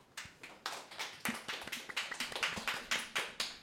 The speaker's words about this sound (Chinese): 让我们掌声欢迎他们。